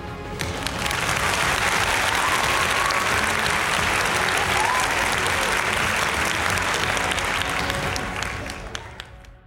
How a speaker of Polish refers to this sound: Super. To fajnie, to Superman dostał już swoje brawa